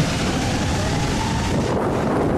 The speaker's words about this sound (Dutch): Nou, windkracht 14 denk ik. Wat denk jij? Orkaan? Ja, wel zoiets.